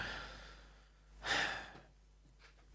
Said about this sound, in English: Excuse me, I'm gonna just make a noise. Tiny little bit sniffy because I had a big sneezing fit.